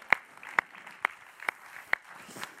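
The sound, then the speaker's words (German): Slow, evenly spaced clapping, about six sharp claps roughly half a second apart, over a faint background hum rather than a dense burst of crowd applause. “Cool, einmal einen grossen Applaus.”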